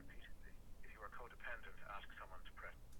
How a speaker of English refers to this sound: Sorry, my mom is calling me. what an interesting ringtone.